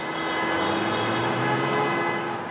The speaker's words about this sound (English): Rush hour at the border is a symphony of honking cars.